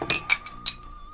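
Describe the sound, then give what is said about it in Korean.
Glasses clink together in a toast, three quick bright taps, each leaving a thin ringing tone that lingers and fades. No voices are heard. “예, 건배! 건배!”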